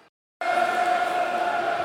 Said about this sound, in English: Crowd responding to the attacking football, though, dear listeners.